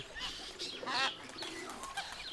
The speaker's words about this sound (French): Que de cris, que de chants, que de plumes et de becs différents venant de tous les pays du monde.